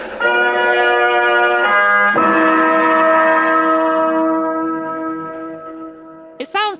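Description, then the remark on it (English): A loud, dramatic musical sting: three stacked chord hits in quick succession, the last one held and ringing out before slowly fading, with a brief warbling sound at the very end. “slightly more like a ba ba ba than a dun dun dun.”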